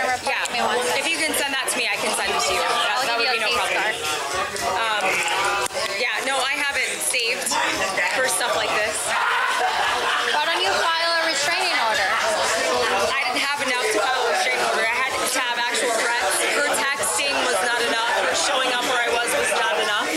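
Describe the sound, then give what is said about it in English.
Dense crowd chatter in a packed bar, O'Shea's, where Casey Anthony was, heard in police body cam audio: many overlapping voices talking at once in a steady, loud babble with no single speaker standing out. “hard to hear that because Tot Mom Casey Anthony's in a packed bar.”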